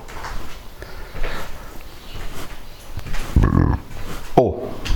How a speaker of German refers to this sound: Jetzt den Stuhl wieder weg.